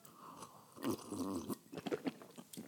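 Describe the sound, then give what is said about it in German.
Wet mouth sounds of someone gulping down a sip of coffee after a toast, with a few quick swallows and smacking noises over nearly three seconds, and no talking. “Jo, das klang jetzt bestimmt sehr eklig.”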